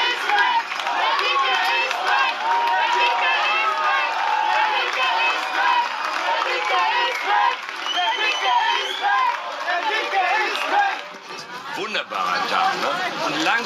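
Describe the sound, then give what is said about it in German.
A large crowd of SPD supporters cheers and chants loudly and without pause as Schröder triumphs before them in a Spiegel TV report, a dense wall of many voices that briefly thins near the end before swelling again. “Ja, so triumphiert Schröder in einer Spiegel-TV-Reportage vor SPD-Anhängern.”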